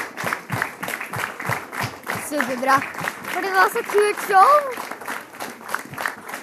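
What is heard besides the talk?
audience applause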